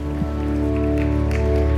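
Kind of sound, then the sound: crowd, audience clapping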